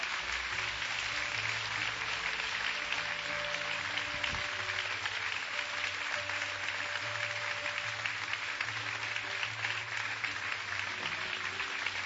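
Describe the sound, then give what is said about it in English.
Sustained applause from a sizable standing audience, a dense steady clatter of many hands clapping at once for about twelve seconds, with a faint low hum underneath. “Let's just applaud right now.”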